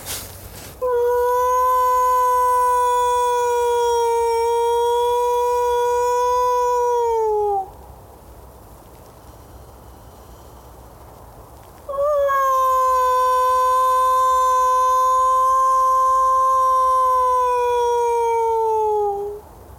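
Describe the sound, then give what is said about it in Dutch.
A person imitates a wolf howl, giving two long, loud, steady howls that each sag in pitch at the end, separated by a few seconds of quiet. “ik bood natuurlijk gewoon een andere wolf na met mijn roep”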